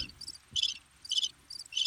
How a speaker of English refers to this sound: You got nothing for me. You know what, you guys? nothing but crickets.